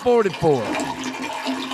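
A brief toilet flush: a quick, loud rushing whoosh of water with swirling, gurgling tones, settling into a steady hiss as the bowl drains.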